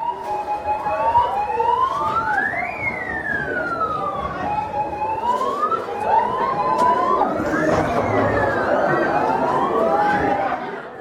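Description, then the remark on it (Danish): A loud wailing alarm siren during an earthquake drill at a school rises and falls in slow repeating sweeps, with overlapping tones, over a steady background of crowd noise and faint chatter. “Samtidig tager han forbi skoler, det, det du kan høre her, hvor de er i gang med en jordskælvsøvelse.”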